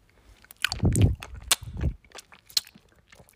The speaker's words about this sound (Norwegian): Jeg må bare spise opp den her først. Det er en dropp som tar ca. en halvtime.